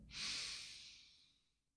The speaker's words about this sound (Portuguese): Pode inspirar profundo, inspira. Solta o ar. Devagar. Inspira.